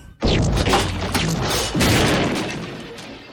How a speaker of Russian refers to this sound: Срывается и начинается перестрелка.